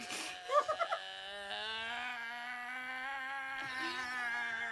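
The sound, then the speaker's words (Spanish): A woman cries loudly: a few quick sobbing gasps, then a long, drawn-out wailing tone that holds steady for several seconds. “Escuchen lo que es el llanto de una mujer.”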